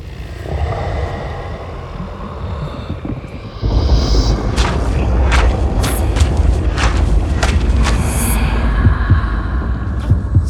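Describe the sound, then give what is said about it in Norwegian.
A muffled, steady heartbeat thumps beneath a deep, droning rumble that swells louder partway through, the repeated beats pulsing on and on with no one speaking. “Selma prøver å gå den veien hjerteslagene fører henne.”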